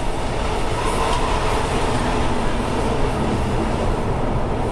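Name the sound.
train running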